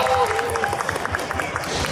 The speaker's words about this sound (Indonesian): Tepuk tangannya dong!